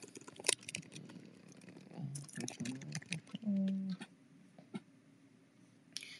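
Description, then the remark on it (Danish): Irregular clatter of fingers typing on a computer keyboard to write out where a church is located, quick bursts of key clicks with short pauses, and a brief low voice sound partway through. “Kan du skrive, kan du lige skrive, hvor det er, kirken ligger?”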